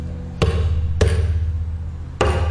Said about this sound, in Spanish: ¿Será un tambor africano? ¿Será un señor caminando? Soy yo haciendo percusión con un bidón.